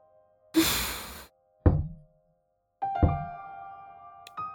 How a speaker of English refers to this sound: I'm hearing so many dice roll in the other room.